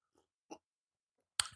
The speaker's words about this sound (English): Uh, like I said, today it is a morning coffee and fight news. Uh, so give you guys a little sip, sip for you guys.